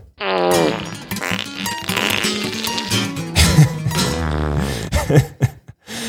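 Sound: fart sound effect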